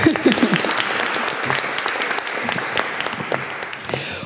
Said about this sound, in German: Nochmal ganz, ganz herzlichen Glückwunsch an Sie drei. Genau, einen Applaus.